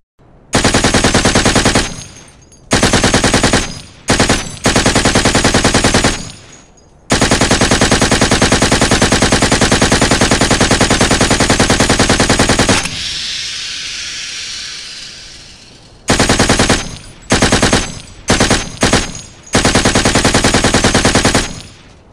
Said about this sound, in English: Marcel, the Frenchman, fires a burst of MG5s through the front door and into the windows overlooking the main room.